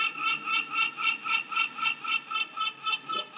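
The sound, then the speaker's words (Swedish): Seagulls in Nice on the French Riviera call in a fast, steady series of harsh, nasal notes, about four per second, repeating evenly without pause over a faint low background hiss. No one speaks. “Historien om måsarna i Nice”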